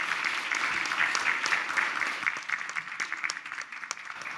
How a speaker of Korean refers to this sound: 올라오실 때 뜨거운 박수로 한번 격려해 주시고 환영해 주시면 감사하겠습니다.